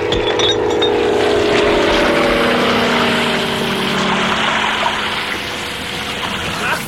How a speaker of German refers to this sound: Ich finde, hier gibt's eine interessante Stelle, wo das Löschflugzeug Wasserbomben wirft. Und da würde ich ganz gerne mal reinhören. Passt auf, das Löschflugzeug wirft Wasserbomben.